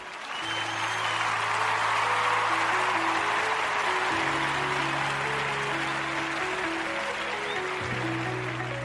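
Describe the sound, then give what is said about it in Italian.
Steady applause, a dense wash of clapping, plays loudly for about nine seconds over sustained low musical notes that shift pitch a few times. No one speaks. “vado in sigla finale e in applausini, quindi eh, applausini e poi sigla.”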